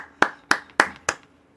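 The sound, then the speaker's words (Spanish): Four sharp hand claps in a steady, evenly spaced rhythm, fairly loud, from what sounds like a single person, given as applause for the people of the Chota Valley, with no talking over them. “Grande Chota, un aplauso y un saludo para toda la gente del Valle del Chota.”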